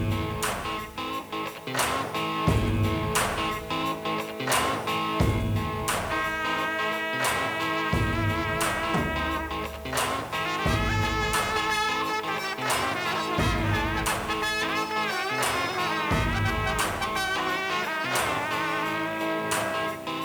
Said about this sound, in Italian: Adesso facciamo una breve pausa musicale.